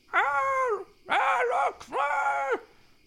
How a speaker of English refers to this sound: Wisps of black clouds cloak them in a perfect All Hallows aesthetic, and a wolf howl pierces the air. Then another then another nearby, then a shout.